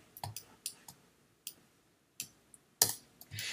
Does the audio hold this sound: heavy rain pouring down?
no